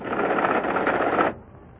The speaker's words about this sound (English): And in practically no time at all, the computer prints out on this typewriter everything we need to know.